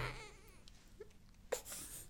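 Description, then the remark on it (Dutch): A baby fusses with a short, wavering cry, fairly soft, followed by quieter whimpering noises and a brief rustle, with no one talking. “Mijn baby is het er niet meer mee eens.”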